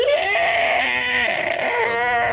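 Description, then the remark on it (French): A voice imitates a creature's howl: one loud, sustained wail that wavers and quavers throughout, with no other speech. “se tourne vers toi. Tu sais, à c'est comme si elle a fait son mouvement de 90 degrés en ta direction tout en continuant son hurlement.”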